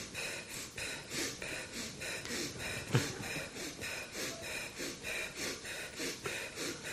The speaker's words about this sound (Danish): Forestiller dig egentlig bare, at luften strømmer ind i munden og ud af munden, så overfladisk er det. Og så efterhånden, som ven dem bliver mere intens, så bliver åndedrættet også lidt mere intenst.